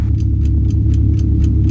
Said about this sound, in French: Un jour, tic-tac.